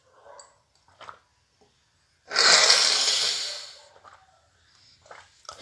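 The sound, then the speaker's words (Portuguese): Someone drinking water: a few faint sips, then a loud, breathy gasp of air lasting over a second, trailing off into soft small noises. No one speaks. “Um minuto para beber água.”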